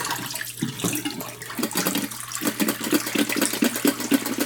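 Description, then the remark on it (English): Pre-soak water pours steadily out of a film developing tank into a sink, a continuous splashing gurgle that runs for several seconds with no voices. “So are we dumping out our um, uh, pre-soak?”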